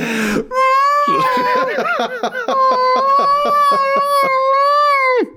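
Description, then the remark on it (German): A person imitates a whale call with a long, sustained, wavering vocal moan, loud, sliding in pitch for about five seconds with a few brief breaks in the middle. “Meine Damen und Herren, hier ist der Wahl.”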